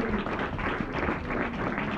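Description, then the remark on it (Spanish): A church audience applauds the pastors, a dense wash of many hands clapping at an even, sustained loudness for the whole two seconds, with no voices rising above it. “Denle un aplauso a los pastores de se Segunda sigan orando.”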